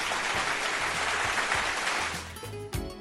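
A crowd claps steadily in a dense, continuous wash of applause that holds for a few seconds, then thins slightly near the end with a few sharper claps and some voices.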